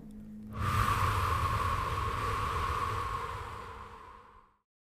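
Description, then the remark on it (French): A single long, forceful exhalation blown out during a guided breathing exercise, a broad breathy whoosh lasting about four seconds before fading away, with no talking. “Soufflez fortement”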